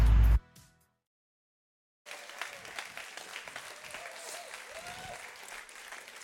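An audience breaks into steady applause for a man coming onto the stage, after a short loud burst and a pause of silence, the clapping dense and sustained at a moderate level until the end.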